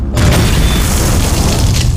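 A loud, deep crash boom sound effect for the crash of the plane carrying Ernest Hemingway and his wife Mary hits suddenly and rumbles on heavily, its low end sustained and roaring for about two seconds with no voices.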